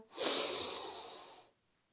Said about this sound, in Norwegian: Da starter vi med å puste godt inn med nesa